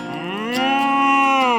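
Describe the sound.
A single drawn-out moo from Marvin, the friendly, curious cow, loud, rising slightly in pitch and holding steady for over a second before fading, with no other sounds around it.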